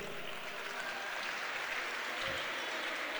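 Sustained audience applause: a dense, steady wash of many hands clapping at an even, fairly loud level for the whole stretch, with no voices standing out.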